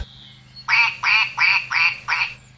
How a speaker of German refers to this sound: Ente.